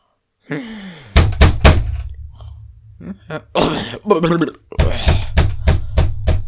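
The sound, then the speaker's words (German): Heavy fist blows pound on a hotel room door, loud, first in a quick burst of three, then a steady run of rapid knocks, with a man's shouting voice between them. “Ja du bist im Hotel und ähm, schläfst und ich hämmer an die Tür und du machst dann auf, okay?”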